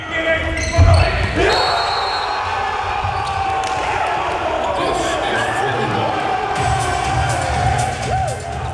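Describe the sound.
A crowd cheers and shouts at the Alva College Sportcentrum after a final, a steady wash of voices with whoops rising over it, and a ball bounces loudly near the start.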